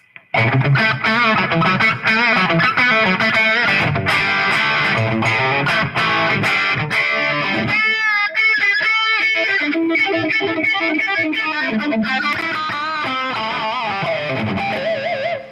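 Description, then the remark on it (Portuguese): A distorted electric guitar, played through a pickup, plays loud, continuous riffs with a biting, aggressive tone, chords ringing with dense harmonics and brief pauses, with no talking over it. “Esse aqui já é mais minha onda, esse picape aqui. Já é mais mordidinho, né? Mais agressivo, né?”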